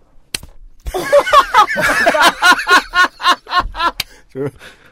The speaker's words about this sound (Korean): 뺨 때리는 소리입니다. 자해를 시작하는군요, 이제.